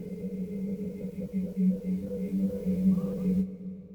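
A thin, high-pitched whistle pulses steadily over murky, hissy, deteriorating old cassette tape of interview recordings, with a muffled low drone and what may be a buried voice beneath it, before cutting off abruptly near the end.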